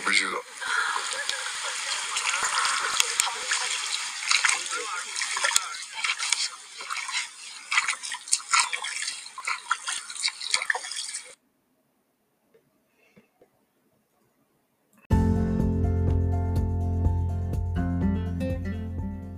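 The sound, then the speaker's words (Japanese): Shoes slosh and splash through shallow rainy-season water on the Uyuni salt flat in a steady, loud run of wet slaps for about eleven seconds. A few seconds of silence follow, then music begins. “音が聞こえましたでしょうか冬ニコの雰囲気を味わっていただけたといただけたらと思います。”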